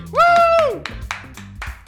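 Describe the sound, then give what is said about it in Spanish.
A single person claps about five times at an uneven, unhurried pace, the sharp slaps standing out on their own, while a voice holds a sustained tone at the start; the clapping welcomes a guest on the show Circo Freak. “Un aplauso solo, una tristeza”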